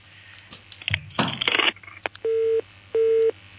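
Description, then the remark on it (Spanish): After a burst of clattering handling noise, a phone line gives two steady, evenly spaced beeps of a single mid pitch, the busy tone heard when a caller's line to the Contrabanda radio programme drops. “se nos ha, se nos ha cortado.”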